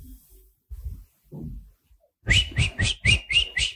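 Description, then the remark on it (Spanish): A person whistles a quick series of six short, bright chirps in a steady rhythm, imitating a little bird, fairly loud after a few soft low murmurs. “Acá había un pajarito que debe haber visto lo que pasó.”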